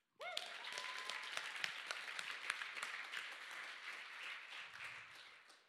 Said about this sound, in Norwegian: Og eh, i år så er det faktisk fire år siden jeg ble kristen. Jeg syns det fortjener applaus.